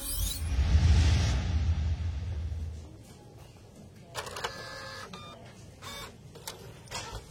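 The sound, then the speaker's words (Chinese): An office printer near the vice president's office at work: a low, rumbling whir for the first few seconds, then a run of short clicking, whirring mechanical bursts with a faint tonal whine as pages feed through. No one speaks. “喂喂，你这一个小时都打印七次了，还没打完吗？”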